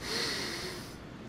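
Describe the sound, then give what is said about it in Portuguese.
A single deep, audible breath, drawn in and then let out, with a soft, airy hiss and no talking. “Respira. Eu sou isso aí. Eu sou esse fôlego que te mantém vivo.”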